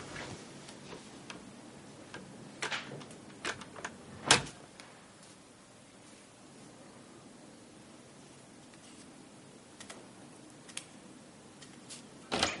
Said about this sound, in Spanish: Abre la puerta de una habitación infantil. Entra un poco.